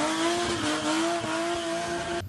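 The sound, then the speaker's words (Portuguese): Tires squeal in a steady, high-pitched screech over the roar of a racing car engine during an illegal street race at night in the Jardins neighborhood of São Paulo, loud for a couple of seconds before cutting off abruptly. “Centenas de pessoas passaram a acompanhar e disputar corridas ilegais.”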